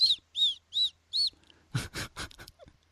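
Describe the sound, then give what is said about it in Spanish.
A voice imitates a whistling S, the way some people whistle their S sounds when talking: four short, high, whistly hisses in a steady row, then a quick cluster of breathier hissing bursts, fairly loud, with no talking. “La gente que hace S silbadas. La odio. Estás hablando y tú solo... llega un momento que solamente oyes”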